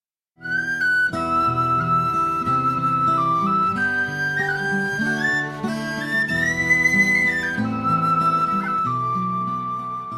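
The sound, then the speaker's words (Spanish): A person whistles a warbling, bird-like melody, sliding between sustained notes, over steady instrumental accompaniment. It plays continuously and clear, with no talking. “Silbidos y gorjeos que los labios experimentados en el arte de la música forman.”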